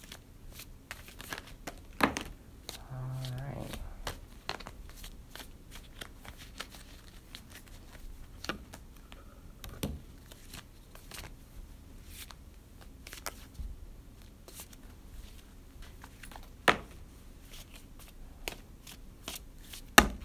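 A deck of cards being shuffled, with a dense riffling burst early on and then many sharp, scattered snaps and flicks of cards throughout, with no voices.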